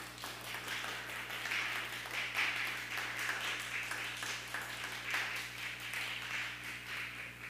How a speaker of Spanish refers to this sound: ¿Quién? Yeshua Hamashiach. Amén. ¿Por qué no le das un fuerte aplauso a él?